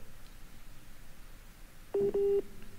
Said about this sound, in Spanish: Es Rafa Inclán a ver si, si lo puedo recuperar, pero dice reconectando, porque me está marcando por, por el WhatsApp.